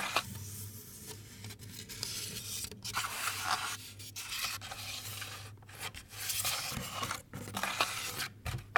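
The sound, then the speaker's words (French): Fingers rub and scrape across a sculpture of thickly layered fabric and materials heavily loaded with porcelain, making a continuous gritty, crackling texture with brief sharper scratches and pauses, over a steady low hum, with no talking. “Il y, a beaucoup de, de charges de porcelaine là-dessus j'enregistre les sons de ses doigts sur la sculpture.”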